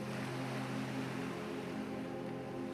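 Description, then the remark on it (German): A steady, rushing roar of waves from the wide ocean breaking against rugged rocks very nearby, beside a barren steppe landscape, continuous and fairly loud with a deep low rumble underneath and no voices. “Es sind die Wellen des weiten Ozeans, die ganz in der Nähe an schroffen Felsen zerschellen.”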